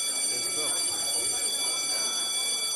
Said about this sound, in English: No, no, no! Everyone, come back here. The bells does not dismiss you. I do.